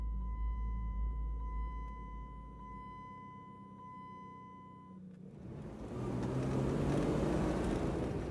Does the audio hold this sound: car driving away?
yes